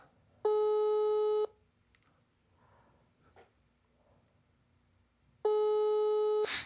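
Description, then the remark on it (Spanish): A WhatsApp calling tone sounds twice after dialing, each a steady electronic tone lasting about a second, separated by a long pause filled with faint background noise, fairly loud. “Márcale, márcale por WhatsApp.”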